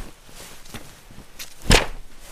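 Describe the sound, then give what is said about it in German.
A few soft, muffled pats smoothing a cushion, light taps building to one firmer, louder thump near the end, with no talking. “Ich muss das mal eben glatt klopfen.”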